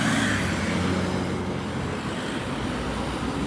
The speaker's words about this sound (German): Ich bin mal echt gespannt bei diesen ganzen Autos, ob man mich noch hören kann. oder ob nicht.